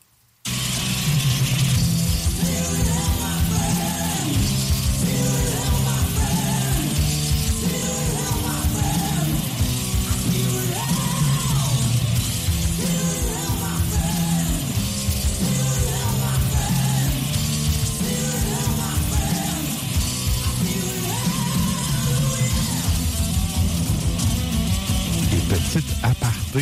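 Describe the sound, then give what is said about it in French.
A santour, the Persian hammered dulcimer, plays a lively jingle of rapid struck, ringing notes layered over a steady low accompaniment, loud and continuous throughout with no voices. “l'instrument qu'on parlait traditionnel dans la tourne de Sven ça s'appelle un santour.”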